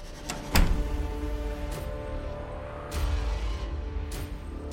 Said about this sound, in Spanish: Cuando se escuchó que alguien abría una puerta.